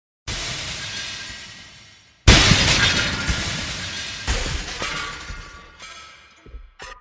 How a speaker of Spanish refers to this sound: Sus cientos y miles de vidrios que fungían en algunos casos de pantallas estaban rotas con las armas más anticuadas y difíciles de encontrar en Cosmópolis. Piedras.